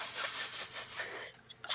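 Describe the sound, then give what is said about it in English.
A person imitates a pit bull sniffing with a quick series of breathy, hissing snuffles, ending in a few sharper sniffs. No one speaks. “the lights go black you just hear the sniffing”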